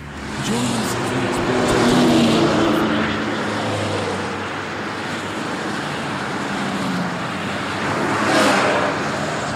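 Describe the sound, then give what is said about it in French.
Julius Eastman's car drives along New York State roads to Buffalo in 1967, its steady engine hum and tire rumble filling the scene, briefly swelling louder as if passing, with a faint whoosh near the end. “Julius Eastman prend sa voiture, parcourt les routes de l'État de New York pendant un peu plus de deux heures et arrive à Buffalo.”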